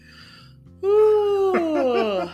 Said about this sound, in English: Was that a was that a yawn of agreement? What was that? I have no idea what that was.